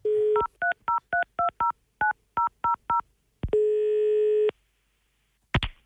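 A phone line tone, then a quick run of about ten dual-pitch touch-tone beeps dialing Statoil on 11 August, followed by a longer steady ring tone and a brief click at the end.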